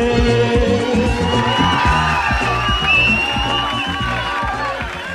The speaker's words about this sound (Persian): مرد خواننده در میان سوت و تشویق ها به پشت صحنه رفت.